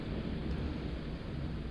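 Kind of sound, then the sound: nature, thunder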